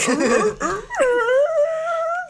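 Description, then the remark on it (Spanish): A person's voice imitates a dog whimpering: a few short, shaky whines, then one long, high, drawn-out whine held steadily for over a second. It is fairly loud, with no speech. “es un perro.”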